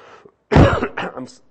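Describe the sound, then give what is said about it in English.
Two loud coughs from a single person in the third week of a cold, the first harsh and forceful, the second shorter and rougher like a throat clear, with brief quiet before and between them. “excuse me, I got sometimes a cough.”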